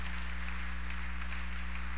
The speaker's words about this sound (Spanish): Si le va a dar un aplauso, déselo al Señor esta noche.